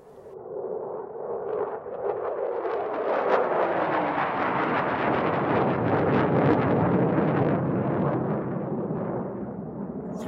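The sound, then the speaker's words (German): A small propeller airplane drones overhead, its engine swelling to a loud, steady rumble with a buzzing, slightly wavering pitch that lingers throughout, with no talking. “Nee, es war so eine kleine Propellermaschine.”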